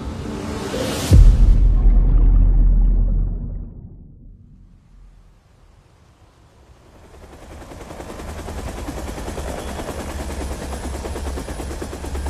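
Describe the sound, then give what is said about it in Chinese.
A sudden loud boom rumbles away to near silence, then the noise of a helicopter landing at dusk swells in and holds as a steady, churning rotor roar with a low thudding beat underneath, in the Greater Khingan Mountains, from the Three-Body audio drama. “直升机降落时已经是傍晚了。”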